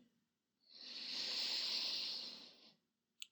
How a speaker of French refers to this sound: Allez, c'est parti, vous prenez une grande inspiration par le nez.